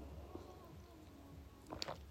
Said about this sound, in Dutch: Even een slokje hoor.